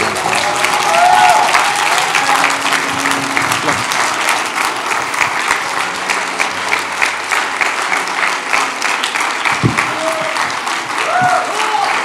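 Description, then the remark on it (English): An audience in a church applauds loudly and steadily for about twelve seconds for a visiting doctor and scholar, a dense wash of clapping hands with a few voices calling out underneath. “Please put your best hand clap together for Dr.”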